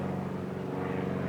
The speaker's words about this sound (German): Und hier fliegen lauter Flugzeuge als äh, Hinweis, wo ich mich denn wohl heute befinde hier in Hamburg. Und immer wenn ich ein Flugzeug höre,